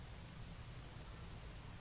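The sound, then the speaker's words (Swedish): A fan runs steadily, giving off a soft, even whoosh with a low hum underneath. It stays quiet and constant throughout, with no voices or other sounds. “Du hör fläkten just nu utan att fokusera på den.”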